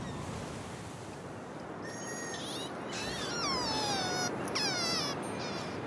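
A steady, dense wash of sea noise from the Kustzee, the coastal sea of the Netherlands, fills the whole recording, with a few high, wavering whistle-like calls sliding downward midway through. No one speaks.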